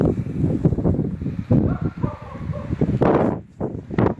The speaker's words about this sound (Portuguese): batendo muito vento, muito tá vento, muita neve, muito frio.